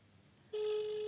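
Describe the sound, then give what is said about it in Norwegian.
A steady electronic phone tone starts abruptly partway through and holds at a constant pitch, bright and clear, like the ringing heard while an outgoing call to a woman connects. “Jeg håper hun tar telefonen mens hun er på dass.”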